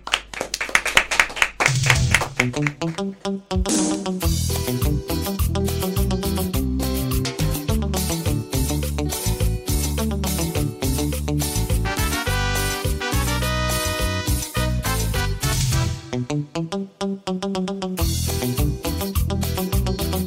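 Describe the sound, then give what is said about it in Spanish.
A lively cumbia tune plays loud and steady, with a bouncing percussion beat, hand-clap accents and bright melodic lines, no voices talking over it. “se va a pedir un temita de cumbia, por lo que me pareció escuchar, para ir cerrando este bloque.”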